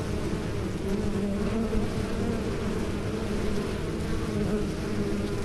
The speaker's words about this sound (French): Je suis née dans le noir, dans le noir d'une ruche qui sent le miel et l'information. Je suis née dans le noir d'une ruche dont j'apprécie le bourdonnement ininterrompu du réseau qui vibre comme un câble sous mes pattes